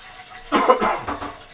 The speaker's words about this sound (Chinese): 你看。水慢慢的上升，到我们这个锅子三分之二的时候，我们就可以停了。